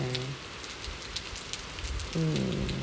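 Steady rain falls throughout, a dense, even patter of drops across the whole clip, with a low, harmonic hum briefly swelling at the start and again near the end.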